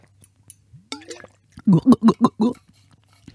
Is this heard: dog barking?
no